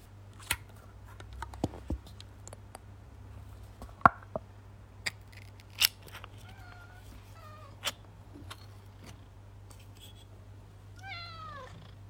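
A can of cat food is opened for two pet cats, a British Shorthair and a Garfield-type cat, with a series of sharp metallic clicks and snaps, over a steady low purr, followed by a few eager cat meows at the end.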